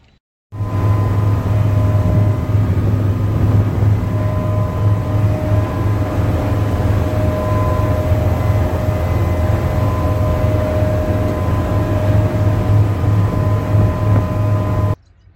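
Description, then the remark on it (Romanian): A steady, loud engine drone with a deep low hum and faint tonal whine runs continuously, like a ship's motor idling, at Dafni, the main port of Mount Athos, with no voices heard. “Acesta este portul principal al Sfântului Munte Atos, Dafni.”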